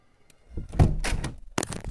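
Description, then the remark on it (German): A window is pushed open and shut, as part of opening and closing it five times, with a scraping slide, a low thump, then a sharp clack as it closes, all without any talking. “Zum Beispiel werde ich jetzt einfach das Fenster öffnen und wieder zumachen und das Ganze fünfmal und das ist richtig krass spannend, ne?”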